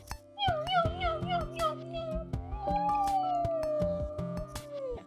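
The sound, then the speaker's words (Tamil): Two long, drawn-out kitten meows, each sliding gradually downward in pitch, as the kittens circle around people's legs; loud over a steady background of rhythmic music with light percussive beats. “அப்படின்னு கத்திக்கிட்டு அவங்க காலை சுத்தி சுத்தி சுத்தி சுத்தி வந்துச்சு”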